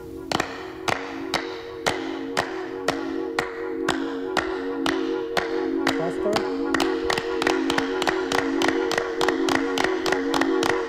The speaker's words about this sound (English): Now let's make several claps with a little pause. Okay? One, two, three.